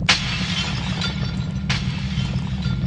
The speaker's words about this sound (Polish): Nagle przednia szyba rozprysła się w kawałki, a szkło rozsypało się na siedzenie.